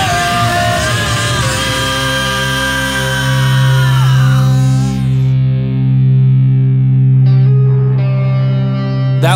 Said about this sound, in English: little guitar part right there.